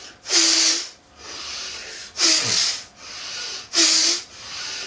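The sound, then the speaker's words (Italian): During a breathing exercise, three sharp, forceful, deliberate exhalations through the nose, like blowing the nose, as the arms are lowered with force and the fists clenched, spaced about every couple of seconds, each a loud hissing rush with quieter breathing in between. No one speaks. “inspiro, espiro, abbasso le braccia un po' con forza, chiudendo i pugni e eh, l'espiro è volontario e sforzato, un po' proprio come se mi soffiassi il naso.”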